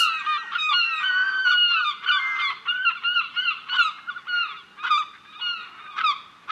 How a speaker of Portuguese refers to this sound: Será o som de gaivotas? Será o som da buzina de um barco? Ou de alguém muito desajeitado a tocar trombone? E a resposta correta é o som das gaivotas, como era óbvio.